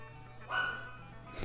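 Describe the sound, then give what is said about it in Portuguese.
A dog barks twice in quick succession, a sharp yelp followed by a shorter bark, heard at moderate volume against a low steady background hum. “meu cachorro tá louco.”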